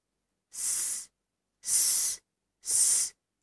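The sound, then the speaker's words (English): A voice imitates a snake's hiss to teach the letter S sound of the word "snake": three drawn-out, breathy "sss" sounds, each about half a second long and evenly spaced, bright and high-pitched, with a fourth just beginning at the end. “S, s, s. Snake, snake.”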